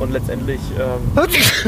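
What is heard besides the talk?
sneeze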